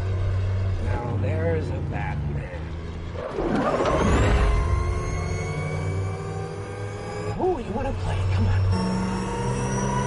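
A car or motorcycle engine revs while accelerating, a steadily climbing whine whose layered tones seem to rise without end, like a Shepard tone used to convey engine power. Loud, with brief voices breaking in over it.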